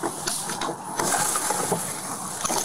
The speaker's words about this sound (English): Within a few seconds of shattering the glass on this car, deputies were able to take a look inside and realize just how serious the situation was.